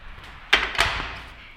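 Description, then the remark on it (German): A door closes with two quick, solid knocks as someone leaves and waits outside it, a latch clunk then the thud of it shutting, followed by a faint lingering room tone. No voices. “Gut, ich, ich warte einfach kurz vor der Tür.”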